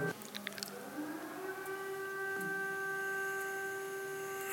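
A civil defense siren, tested at noon on the first Wednesday of every month to check that it works, sounds a steady, sustained tone, holding its pitch throughout, with a few brief rustling noises near the start and no talking.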